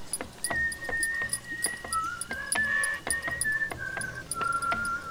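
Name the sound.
person whistling a tune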